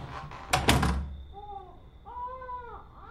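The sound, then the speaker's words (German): A dull thump, like a door, is followed by two short, rising-and-falling wails of a crying baby, the second longer and a little louder, with no talking. “fing an zu schreien.”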